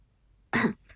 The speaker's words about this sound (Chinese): 苏哲咳嗽一声